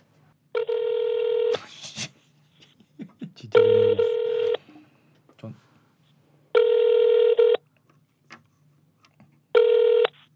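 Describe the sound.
A phone line rings out with long, steady electronic tones repeating about every three seconds, four in all, while a voice briefly murmurs between the first rings.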